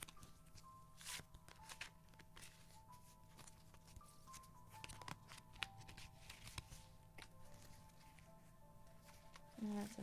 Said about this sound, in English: And then oftentimes, one card will just fall out of the deck, or one card won't shuffle back into the deck.